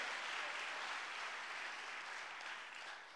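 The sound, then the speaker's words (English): An audience at a morning worship service claps together in a dense, sustained wash of applause, loud and steady throughout before tapering slightly toward the end, with no voices standing out. “Come on, if you're gonna clap this morning, clap like you mean it.”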